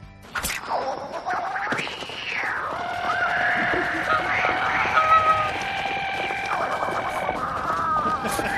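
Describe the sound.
Girls imitate jet engines while running, with sustained whooshing whines that rise and fall in pitch, overlapping and continuing loudly for several seconds, without any clear words.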